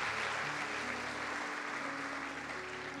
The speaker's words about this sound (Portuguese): Se você recebe isso, dê uma salva de palmas a Jesus.